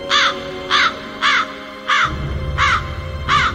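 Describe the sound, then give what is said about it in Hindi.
Crows caw six times late at night at a house in Meerut, in a steady, evenly spaced series of harsh, nasal calls, loud and growing louder, with a low rumbling background that grows in the second half. “धर्मेश को कौओं की आवाज एकदम साफ सुनाई दे रही थी जो धीरे धीरे तेज होती जा रही थी”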